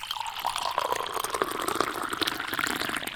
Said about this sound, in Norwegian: Ja, jeg har ikke mer kaffe. Har du fri? Jeg er fri på kaffe. Da må vi gå og fylle opp kaffe.